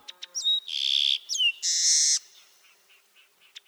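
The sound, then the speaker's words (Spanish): A small grassland bird, at most 11 centimetres long, brown with a streaked back, barred wings and a black crown striped with white, sings a bright, high-pitched song: a couple of quick chips, then two sustained buzzy trills separated by a sliding whistle, ending in faint scattered notes. No voices. “Es de color pardo con el dorso estriado y las alas barradas. Tiene una corona negra rayada de blanco.”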